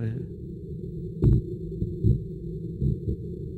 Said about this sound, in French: En revanche, je vais vous faire écouter le chant amoureux de la morue.